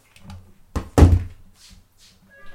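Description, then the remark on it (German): A heavy door thud lands with a dull, booming impact as someone bangs on the door, preceded by a softer knock and followed by faint shuffling and a brief tonal whine. “Sonst reißen sie mir gleich die Tür ein.”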